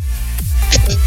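Crackling interference from one call participant's microphone: a steady electrical hum and hiss broken by a few sharp, scratchy bursts of static, loud throughout with no voices.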